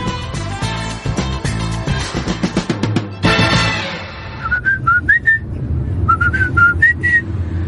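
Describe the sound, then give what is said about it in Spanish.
After a few seconds of busy instrumental music, someone whistles a simple children's song melody in two short phrases of clear, high notes, with soft music continuing underneath. “Es exactamente la misma canción, tiene la misma melodía.”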